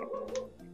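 Dogs yip and whine in the background, a brief, fairly faint burst of high, tonal barking with no one speaking over it.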